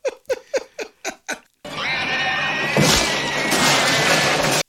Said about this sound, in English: So now the blob gets another POV shot, and it's also at this point making pig noises. as it's chasing them.